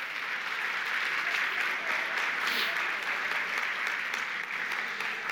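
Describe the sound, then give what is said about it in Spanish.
A church audience bursts into sustained applause to the Lord, a dense, steady wash of many hands clapping at an even loudness for several seconds with no pause. “Que usted quiere sea un fuerte aplauso al Señor por el privilegio que nos da.”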